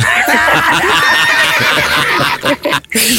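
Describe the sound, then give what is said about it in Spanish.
Roosters and hens at a home about 20 minutes from the pyramids crow and cackle loudly in a dense, overlapping chorus, a steady din of bird calls that only briefly drops off near the end. “Oye, ¿y esos gallos que estoy escuchando, gallinas, qué onda?”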